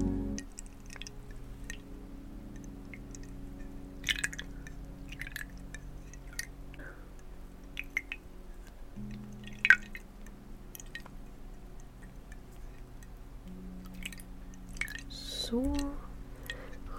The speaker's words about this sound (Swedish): Nu är ditt ansikte helt rent så nu så ska vi bara skölja bort det med lite vatten.